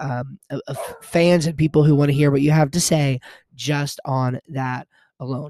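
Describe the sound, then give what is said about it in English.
A female dog whimpers and yips in the background with high, rising-and-falling whines, partly overlapping a man talking steadily in the foreground. “All right, I apologize for the dog in the background, but I hope you found something useful from this.”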